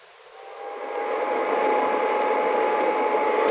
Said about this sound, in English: Wait till I turn this vacuum cleaner off.